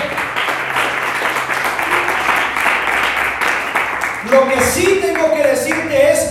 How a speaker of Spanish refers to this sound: Alguien dice ver a esto y alguien puede aplaudir en esta tarde.